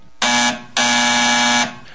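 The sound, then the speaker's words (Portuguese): A nurse call bell, used to alert the nurses, rings in two loud, harsh electronic buzzes, a short one followed by a longer sustained one, with a steady, bright tone and no voices. “a campainha que serve para alertar os enfermeiros toca, o que faz com que todos da antessala, assustados, dirijam-se para o quarto no mesmo instante em que uma enfermeira e um enfermeiro entram pela porta externa.”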